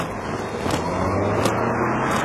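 A car rushes past close by on the road, nearly hitting a pedestrian hurrying across at a traffic signal, a loud, steady roar of engine and tire noise with a few sharp clicks and scrapes, and no one talking.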